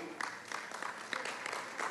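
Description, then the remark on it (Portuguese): An audience claps steadily, a dense patter of many hands with brief surges, fairly soft throughout and with no voices standing out. “Se esse aplauso é para Jesus, tem que ser forte.”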